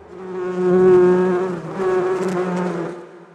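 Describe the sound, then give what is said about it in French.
A steady, dense buzzing of many bees swarming around a beekeeper's hives, swelling and easing in waves with a droning hum, with no voices. “Je l'ai laissé à ses abeilles pour discuter avec Pierre Daget.”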